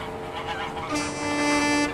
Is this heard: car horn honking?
yes